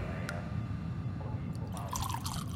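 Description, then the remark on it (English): Water from a buildup of condensation drips irregularly against a steady low rumble, a few small plinks and taps scattered across the moment, fairly quiet, with no voices. “It's likely just a buildup of condensation.”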